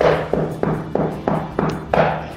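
Knocking on a door: about seven firm, evenly spaced knocks in quick succession, each with a short hollow ring, close and fairly loud with no voices.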